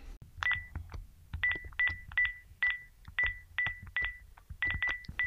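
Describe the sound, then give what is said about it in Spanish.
A rapid series of about ten short electronic keypad tones as a phone number is dialed to order pizzas, each beep crisp with brief gaps, alone without voices. “Oye, viejo, ¿qué haces? Deja el teléfono. No, pues voy a pedir unas pizzas por si las dudas, vieja.”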